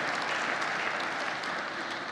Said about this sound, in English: Thank you so much for clapping. That just made my week.